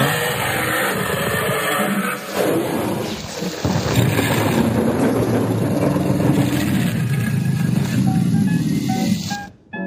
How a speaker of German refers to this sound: Und dann dahinter vielleicht noch so ein Donnern. dahinter vielleicht noch so ein Donnern, das wäre schön.